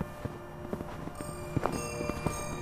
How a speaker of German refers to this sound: Er ist inzwischen so dick, dass deine Schritte richtig knirschen.